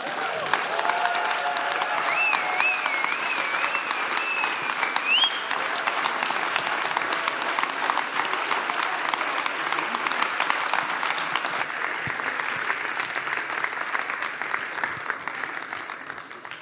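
Sustained applause from a large audience standing to welcome a guest, dense steady clapping with a few cheers or whistles early on, continuing strongly for the whole stretch before starting to taper.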